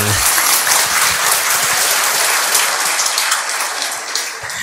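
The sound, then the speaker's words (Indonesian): An audience claps steadily, a dense, continuous patter of many hands holding at a strong level before easing off slightly toward the end. “Tepuk tangan.”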